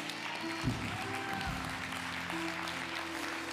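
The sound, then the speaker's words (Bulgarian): An audience claps steadily, a dense, even wash of many hands that holds at a moderate level throughout, with a low hum or tone sustained underneath. “Ако ръкопляскаш, ръкопляскай като че искаш да общуваш.”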